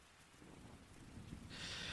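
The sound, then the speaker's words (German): Soft, steady rain patters with a low rumbling undertone, the hiss turning brighter and fuller in the final half second; no voices are heard. “Und ich dachte mir, ich bringe heute ein bisschen Regensound mit, weil ich liebe Regensound und Regensound beruhigt.”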